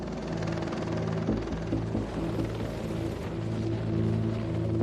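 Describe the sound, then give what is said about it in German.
A helicopter carrying cargo and a research team from a parking lot up almost 1000 metres to the summit of the Weißseespitze, over a glacier ski area; its engine whine and rapid rotor thumping form a steady, loud mechanical drone throughout, with no voices. “Mehrfach fliegt der Heli, um Ladung und Forscherteam vom Parkplatz auf den Gipfel der Weißseespitze zu bringen.”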